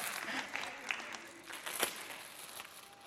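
Audience applause fills the moment, a dense patter of many hands clapping at moderate volume, with a few sharper claps standing out and no talking over it.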